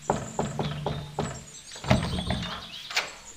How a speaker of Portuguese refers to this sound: Era uma bela manhã de primavera, quando Percival, o ministro das cenouras, bateu à porta do rei.